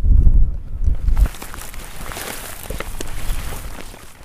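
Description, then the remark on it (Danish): Wind buffets a microphone outdoors, a heavy low rumble for the first second, then easing into a steady, breezy hiss with faint rustling and scuffs. No one speaks. “Det blæser en lille smule”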